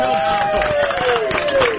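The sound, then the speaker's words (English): A crowd gives a send-off round of applause with a steady, dense patter of clapping throughout, fairly loud, while a drawn-out cheer or whoop glides downward over the top. “But before we did that, we wanted everybody to give you a round of applause so if we can open the door and get everybody to come in here, everybody's going to give you the send off you deserve.”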